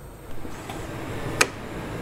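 A microscope's focusing mechanism makes a couple of brief mechanical clicks over a low, steady room hum: a faint one early on, then a sharper, louder one. No one speaks.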